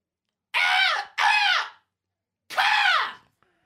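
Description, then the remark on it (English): A person imitates a crow with three loud, harsh caws, two in quick succession and then a third after a short pause, each a raspy, strained call with no other sound. “let's try our, our crow noises”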